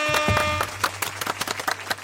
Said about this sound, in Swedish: Applåder!